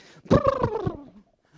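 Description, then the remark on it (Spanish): A voice imitates a wet dog shaking off water with a loud, fluttering, throaty burble lasting under a second, pulsing rapidly about four or five times before trailing off. “Usted moja al perro, lo suelta y el perro llega a, agarra carrera y por allá hace”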